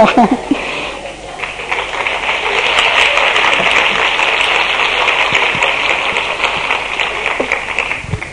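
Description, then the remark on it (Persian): Five people clap steadily for several seconds, a dense, crackling patter of hand claps that swells after the first second and holds fairly even before thinning slightly at the end. “مرسی از این پنج نفری که تشویق کردن”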